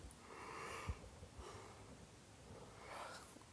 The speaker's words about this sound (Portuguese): Desculpa pessoal, nem cortei o bocejo dessa vez porque. Ai. Deixei tocar o bonde, mais natural possível, né?